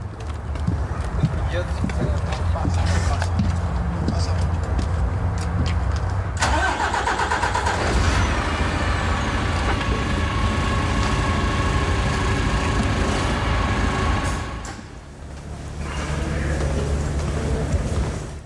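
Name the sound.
bus engine running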